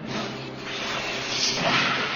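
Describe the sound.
A long, forceful blowing whoosh of exhaled breath, a steady breathy rush of air lasting a couple of seconds, fairly loud, with no talking.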